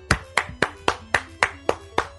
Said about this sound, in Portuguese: Eu deixo minhas palmas aqui, porque esse cara aí enfrentou o Shin Megami Tensei Old School e ele acabou de dizer.